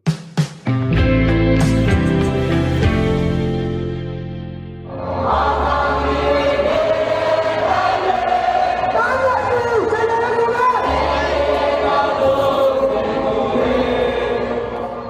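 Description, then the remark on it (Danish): Protesters in Myanmar sing a famous democracy song together as a crowd at a demonstration following the military coup, a broad chorus of voices that swells in after a few seconds of quieter tonal sound and carries on steadily to the end. “Nu er vi taget en tur til Myanmar, og det I hører her, det er en berømt øh, demokratisang i landet, som de protesterende synger i en af de mange demonstrationer efter forrige uges militærkup, der afsatte lederen Aung San Suu Kyi.”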